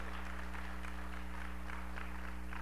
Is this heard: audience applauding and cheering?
yes